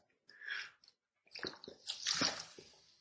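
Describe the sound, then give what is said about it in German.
Liquid splashes and sloshes as a zero-calorie, zero-sugar energy drink is poured into a glass, followed by a few wet sipping and swallowing sounds, with no talking. “Und ich probiere den jetzt einfach mal.”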